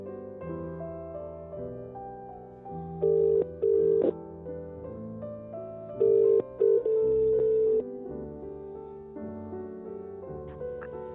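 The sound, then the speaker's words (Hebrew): Telephone dialing and dial tone as a caller redials after a poor line: clear, steady mid-pitched electronic tones in short bursts, two around the third second and a longer stretch later, over continuous quiet musical background. “אני לא, שומע, לא שומעים אותך טוב, אני מנסה לחייג אליך שוב.”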